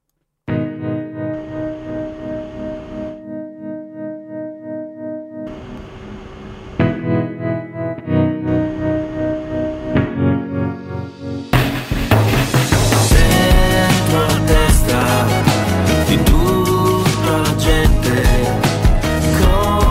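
A song plays loudly, opening with a sparse, effects-heavy guitar intro in stop-start phrases before the full band crashes in with drums and dense distorted instruments for the remaining stretch.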